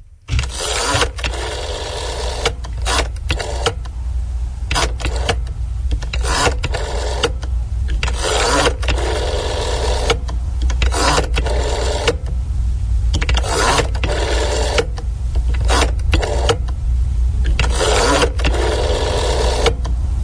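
A rotary telephone dial whirs and clicks as a Romanian landline number starting with the 021 prefix, belonging to an institution in Romania, is dialed, with repeated loud bursts of mechanical winding and brief pauses between digits, over a steady low hum. No one speaks.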